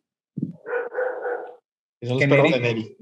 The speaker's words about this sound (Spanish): El perro, el perro del vecino que no se calla. Clásico. Eh, perro. cállate. Como cada episodio, el perro del vecino.